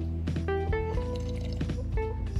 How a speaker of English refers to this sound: Hold on, I'm going to take a little sip right here